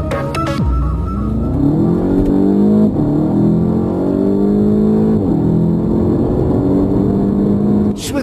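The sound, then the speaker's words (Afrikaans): A Volkswagen Golf GTI Clubsport, the car with which Volkswagen celebrates the Golf GTI's 40th anniversary, revs hard and loud, its pitch climbing in several rising sweeps with brief drops between them, like gear changes under acceleration. No voices are heard. “klink die Golf GTI Klapsport waarmee Volkswagen sy Golf GTI se 40ste verjaarsdag vier.”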